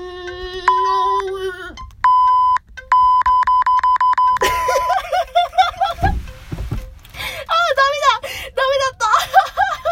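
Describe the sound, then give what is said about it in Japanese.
A steady electronic censor bleep tone sounds repeatedly in the first half, in long flat stretches with short gaps, covering a tongue twister, after which excited voices and laughter take over. “もう、ピー音で最、最悪いくよ。”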